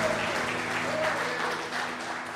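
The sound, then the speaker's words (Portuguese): An audience claps loudly and steadily for the Lord, a dense wash of many hands that holds for the whole stretch, with a low sustained tone humming beneath it. “Aplauda bem forte forte ao Senhor.”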